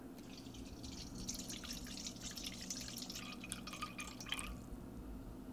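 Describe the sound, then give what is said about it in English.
315 grams of water is poured steadily into a container on a kitchen scale for several seconds, with splashy, trickling drips over a low background hum. Fairly quiet, with no talking. “So we're going to get 315 grams of water.”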